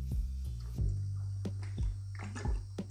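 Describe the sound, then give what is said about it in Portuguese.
Someone sips a drink of water: a few soft gulps and wet mouth clicks spaced unevenly over a few seconds, with no talking. “Tomar um golinho d'água que falar a beça assim seca a garganta.”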